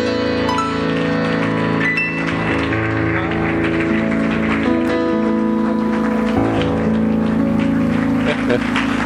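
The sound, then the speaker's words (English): A church audience claps steadily during worship over sustained, droning musical chords, the dense patter of hands blending into a continuous wash beneath the held tones. “Keep clapping, keep worshiping, keep praising, keep loving Him.”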